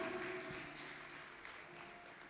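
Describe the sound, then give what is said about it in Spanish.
An audience claps steadily and densely for a couple of seconds at a sustained, fairly loud level, giving applause to the Lord during a sermon, with a faint tonal hum lingering underneath the applause. “Dale un aplauso al Señor.”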